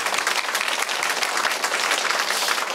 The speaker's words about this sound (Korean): 네, 아, 말씀을 드리면서 아, 박수 한번 칠게요. 네.